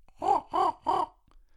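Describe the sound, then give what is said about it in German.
A person imitates a raven's call as a signal for a group to come back, with three loud, hoarse caws in quick, even succession, with nothing else around them. “Und dann mache ich den Rabenruf.”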